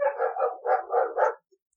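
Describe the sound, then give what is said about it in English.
A dog barks rapidly, about six sharp barks in a quick rhythmic run, moderately loud, then stops abruptly. No one speaks. “Same dog.”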